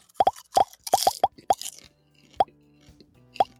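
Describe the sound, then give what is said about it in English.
Popcorn crunching right into the microphone: a rapid, irregular run of loud, sharp crackling snaps that thins out into a few isolated crunches separated by quiet pauses, with no talking. “Oh, don't crunch on the mic.”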